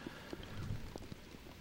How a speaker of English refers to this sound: opening the door to see uh, just how much it was raining, no, and then all of us going, "No, no, Close don't do door! that."